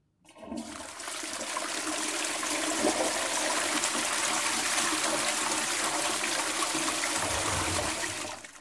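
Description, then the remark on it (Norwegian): A workplace unisex toilet flushes, a loud, steady rush of water that starts abruptly and roars continuously for several seconds before tapering off at the end, with no voices. “Dette er reporter Patrik Engelberg som rapporterer fra Unisex-toalettet på min arbeidsplass”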